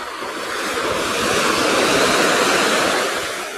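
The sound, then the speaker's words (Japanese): Steady ocean surf washes against the shore at a seaside in Hayama, Japan, on a hot, sunny afternoon before a typhoon, a broad hissing roar that swells gently in the middle and eases off, with no voices over it. “午後の波音とシトラスの風🍋〜葉山の海辺から”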